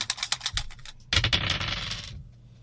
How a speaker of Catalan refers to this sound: Apa, tira els daus. Allà van.